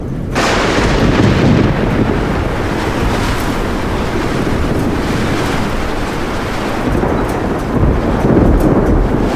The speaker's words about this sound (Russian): На следующей неделе была гроза. И молния ударила большое дерево в парке около дома отца.